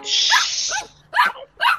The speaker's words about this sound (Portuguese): Desculpa, é, desculpa, professor, foi o meu cachorrinho.